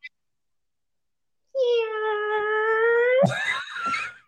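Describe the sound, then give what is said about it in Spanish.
A voice imitates a rusty door creaking open: a drawn-out, strained nasal whine lasting a couple of seconds that bends sharply upward at the end, fairly loud. “Empieza, se empieza a abrirse la puerta oxidada.”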